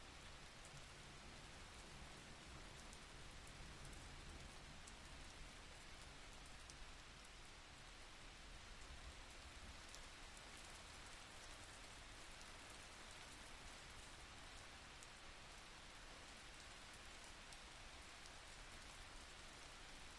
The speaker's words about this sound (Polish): Wsłuchując się jeszcze przez chwilę w dźwięki deszczu, weź wolny, cichy wdech i wypuszczając powietrze, powoli otwórz oczy.